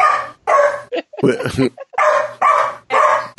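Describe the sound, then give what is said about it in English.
A dog barks repeatedly, about five loud, evenly spaced barks, with a short burst of human voice breaking in between them partway through. “See, it, even the dog says you should pause this.”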